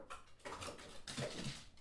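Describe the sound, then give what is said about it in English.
A dog, Sadie, tumbles down a flight of stairs in a quick flurry of thumps and scrabbling paws, moderately loud, with no one speaking. “Sadie Dog has a tendency to fall down the stairs.”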